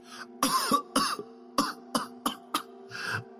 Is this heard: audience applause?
no